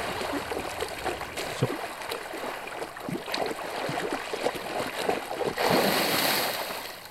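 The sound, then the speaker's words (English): Thrashing water sound effects from the reissued 7.1 surround soundtrack of the 1975 film Jaws, where they replace a chuckle, churn steadily, with irregular splashes and sloshing bursts throughout, swelling into a louder rushing surge near the end. No voices are present. “That that the chuckle has been removed and replaced with just thrashing water sounds.”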